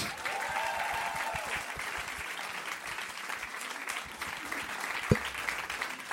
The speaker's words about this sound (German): Ein Riesenapplaus für unseren ängstlichen Hund.